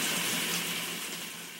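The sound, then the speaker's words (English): A steady rush of running tap water, fairly loud, with the splashy hiss of an item being rinsed off under the stream, no voices. “Better rinse it I'm going to rinse it off.”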